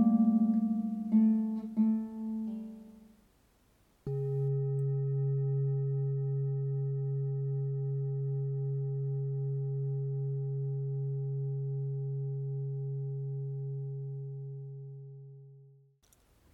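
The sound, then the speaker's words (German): A single deep gong stroke, struck to begin a meditation, rings out and hums steadily, its low tone slowly fading over about twelve seconds, after a brief fading chime at the start. No one speaks. “Die Meditation beginnt und endet mit einem Gong.”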